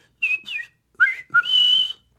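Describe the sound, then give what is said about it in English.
A person whistles an imitation of a red-winged blackbird: two short sliding notes, a pair of quick lower chirps, then a long buzzy trill held for about half a second, with no talking. “Hey, can you do the red winged blackbird?”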